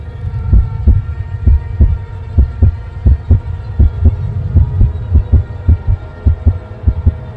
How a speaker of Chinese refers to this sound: 黑暗中，不知道谁的心跳的扑通扑通响。